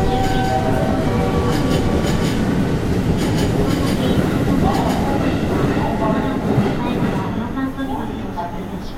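A JR 207 series electric commuter train runs from Amagasaki to Sumiyoshi, steadily with a constant low rumble and rhythmic clicking from the wheels, plus faint whining tones, easing slightly toward the end.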